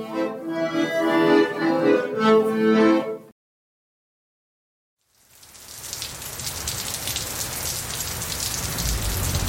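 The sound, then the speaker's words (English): A few seconds of melodic tones, then a short silence gives way to steady rain pattering and hissing on hard surfaces in front of a school on a very rainy day, growing slightly louder and continuing to the end with no voices. “yeah, we're just in front of the school right now, just buzzing to get in um, on this very rainy day.”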